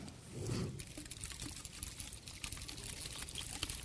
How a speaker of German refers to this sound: Na, und irgendwann mal, ich habe schon zu viel getrunken, jetzt passiert's. Was passiert? Wenn ich die Flasche schüttel, kommt Wasser raus